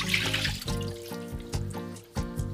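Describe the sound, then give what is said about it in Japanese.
Water splashes and pours out of a bowl of soaked potatoes, a steady rushing drain broken by a few sharper sloshes and knocks of the potatoes shifting, with no talking. “えっとこのぐらいの時間でもえっとじゃがいもの方ももう水を切ってしまって大丈夫です。”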